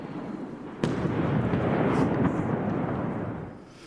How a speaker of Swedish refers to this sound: obehagligt när det smäller mitt i BBCs live-rapportering